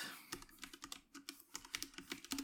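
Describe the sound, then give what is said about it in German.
Rapid, irregular keystrokes on a computer keyboard as someone quickly enters something, a steady flurry of crisp clicks with no one speaking. “Dazu muss ich jetzt allerdings mal ganz schnell noch was eingeben. Ihr hört mein Tippen jetzt.”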